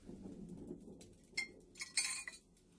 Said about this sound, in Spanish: Vamos a abrir el frasco. Mmm, me encanta el aroma del café, mira.